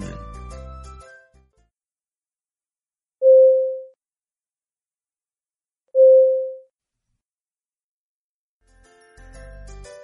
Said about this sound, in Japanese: うんこれはあれですか、飛行機が着陸する時とかあやつ、なんか。そうです。飛行機のシートベルト着用サインの。ね、ああ、そうそうそう。そうう。んうん。これ、うちこれ聞くと、ああ、旅立ち、みたいな。ああ、着くぞみたいな。